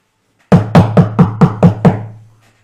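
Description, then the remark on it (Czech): Seven quick, evenly spaced knocks on a wooden door that stands wide open, knocked before entering, loud, each with a hollow resonant thump, the last ringing out briefly into silence. “ty, klepe, jasně, ty, ty klepeš na ty dveře, které jsou samozřejmě dokořálené.”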